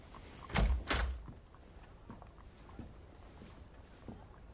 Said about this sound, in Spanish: Pase, por favor. Abre la puerta de la consulta.